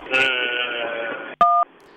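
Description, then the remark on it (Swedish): A voice speaks briefly, then stops, and a single short telephone keypad tone sounds: a steady, clear dual-pitched beep lasting about a quarter second, loud. The key is pressed on Bandit's automated telephone answering machine menu, choosing option 2, 'woman'. “Du har kommit till Bandits automatiska telefonsvarare. Är du man? Tryck 1. Är du kvinna? Tryck 2.”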